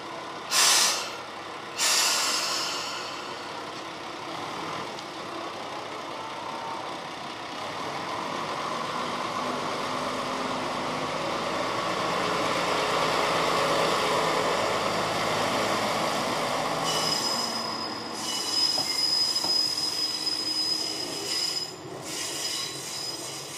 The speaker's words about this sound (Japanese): 情感伝わっておりますでしょうか本当ディーゼルのエンジンの音に耳を澄ますということでね